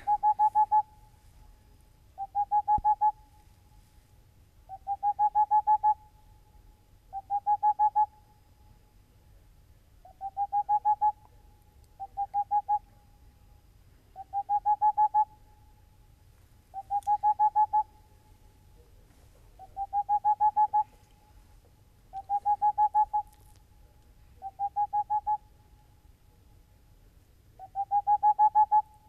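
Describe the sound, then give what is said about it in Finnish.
A boreal owl calls alone, giving about a dozen short, rapid runs of soft, mid-pitched hoots, each burst lasting about a second and repeating at a steady pace over a faint low hum. “saatat sieltä sen helmipöllön, helmipöllön sieltä äänistä, jos mahdollista, niin kuunnellaan tätä puputusta, jota on siis kuulunut paikotellen jo joulukuusta lähtien.”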